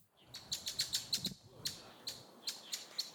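A Eurasian blackbird gives a quick run of sharp, high chinking notes, then several more spaced-out single chinks, with no voices over it.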